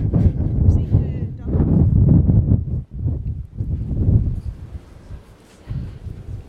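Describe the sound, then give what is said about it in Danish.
Heavy wind gusts buffet a microphone, a loud, rumbling roar that surges and briefly drops out before swelling again, then eases toward the end. “Nu går der helt amok med det her blæst, ja.”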